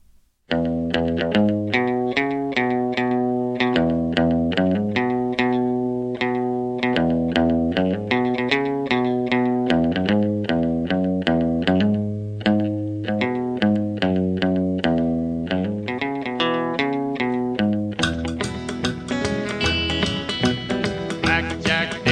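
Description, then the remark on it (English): A rockabilly tune plays loudly and steadily, with a driving rhythm of bright, twangy electric guitar chords; no singing is heard, and the sound thickens into a fuller, busier strum toward the end. “But um, I yeah, I was delighted to find a rockabilly version of the song I love so well.”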